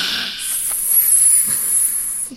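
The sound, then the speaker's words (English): A voice makes a long, steady hissing sound, saying a word in imitation of snake speech. It is sustained for about two seconds with slight wavering, fairly loud, then trails off abruptly. “I said it in Parseltongue.”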